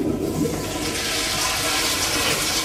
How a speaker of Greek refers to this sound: Τραβάς το καζανάκι.